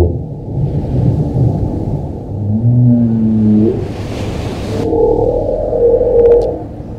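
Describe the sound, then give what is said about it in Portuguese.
Deep underwater calls from a giant marine mammal weighing 40 tons and reaching 16 meters in length, which comes to the coast in winter: long, sliding tonal moans and groans over a constant low rumble, loud, with a brief hiss midway and no voices. “Eu acho que eu ficaria extasiado, porque esse som é de um animal que pesa 40 toneladas e atinge 16 metros de comprimento.”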